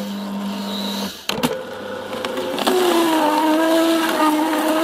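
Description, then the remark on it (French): A vertical juice extractor making a second juice: a steady motor hum drones, cuts out briefly, then restarts with a sharp clack and runs louder with a rising whine and grinding rattle, no talking. It makes this noise because it had not been used for a long time. “Comme l'extracteur vertical, il, travaille tout seul.”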